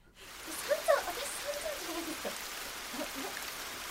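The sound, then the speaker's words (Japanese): Steady rain falls with a continuous, even hiss of drops, moderately loud, with a few brief faint tones near the start. “なんでなんでこの状況で雨が降ります”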